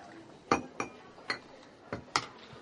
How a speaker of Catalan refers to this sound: Una senyora d'unes grans dimensions es mou per entre les taules, atenent la tòria dret als clients. Les converses queden tamisades entre el murmuri de la gent i el fumejar dels plats.